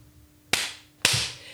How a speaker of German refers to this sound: kannst du mal noch klatschen?